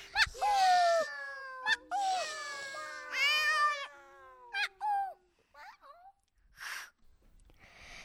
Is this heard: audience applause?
no